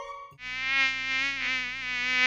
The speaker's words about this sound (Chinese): 一只讨厌的苍蝇嗡嗡嗡的飞到了小公主的鼻子上。